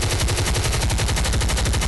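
Rapid automatic gunfire rattles continuously for two seconds, a loud, dense burst of evenly spaced shots with heavy low-end thumps and no voices.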